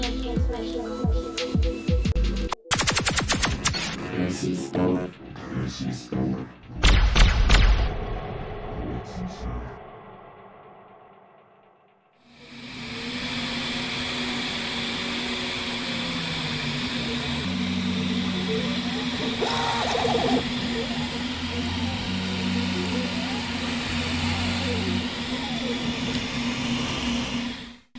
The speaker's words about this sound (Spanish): Este sonido es el sonido de una impresora 3D una Prusa I3 MK2 específicamente, con una cama de 20 por 25 centímetros, imprimiendo material PLA, es un plástico hecho de hecho de fécula de maíz, así que es un plástico biodegradable.